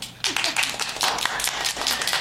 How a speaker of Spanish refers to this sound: ya estamos como cuenta verificada. Aplausos, por favor.